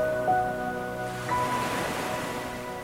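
Ocean waves wash steadily onto the shore in a continuous, moderately loud rush, with soft sustained musical tones humming over the surf and no voices.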